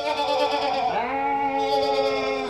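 A sheep bleats loudly and close by in one long, wavering call that dips in pitch partway through and then holds steady, with no talking over it.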